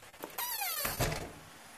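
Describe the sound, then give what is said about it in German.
A door squeaks on its hinges with a rising, wavering creak, then shuts with a solid thud that fades into a quiet background tone. “Warte, ich mach mal die Tür zu,”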